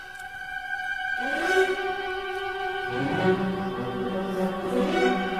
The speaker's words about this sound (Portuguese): Estamos eh, a ouvir a Cavalgada das Valquírias eh, do eh, mítico Richard Wagner.